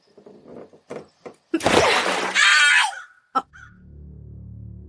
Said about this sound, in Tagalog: Anong ingay yun? Parang may dagang naipit. Wala naman ako nakikitang daga dito.